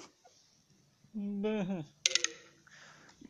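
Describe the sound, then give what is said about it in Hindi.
A boAt wireless headphone's low-battery alert: a quick burst of bright, chiming electronic beeps, moderately loud, preceded by a short, wavering tonal hum against a quiet background. “ये आपने आवाज सुनी अभी ये बैटरी हाँ, कम की बैटरी कम की आवाज सुनी होगी आप”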